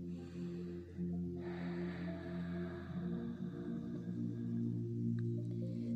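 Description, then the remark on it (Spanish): A slow, deep breath drawn in and let out, soft, over a steady low humming drone that continues throughout with no talking. “Una respiración más.”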